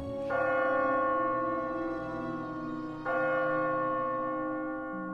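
Bells of a nearby church ring in the new year 2010 on a night of heavy snow, two deep, resonant strikes about three seconds apart, each blooming into a rich, sustained hum of overtones that lingers without fading.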